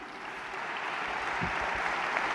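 Steady applause from an audience, a dense, even patter of many hands clapping that holds at a fairly constant level throughout, with no voices standing out.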